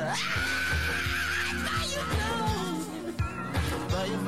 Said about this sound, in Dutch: Ja, en daar zat ik even op te wachten. Ja, die moesten wel even eh, zitten. De schreeuw, hè?